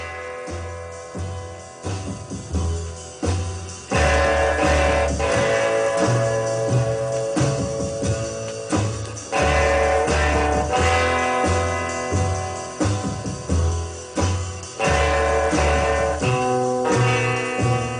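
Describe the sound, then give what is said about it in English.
A full band plays twangy, reverb-soaked guitar music in a surf style, with a steady thumping bass pulse under sustained, ringing guitar notes. It is loud and continuous, with no voices. “So it was like a, a reverb drench, really cool sound that like bent into surf music.”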